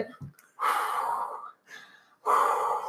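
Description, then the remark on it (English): A person imitates hard, heavy breathing: three loud, breathy rasping exhales, the first and last long and forceful, a shorter one between, after a brief catch of breath. “Um, but yeah, so I was breathing super hard, like like being super extra about it.”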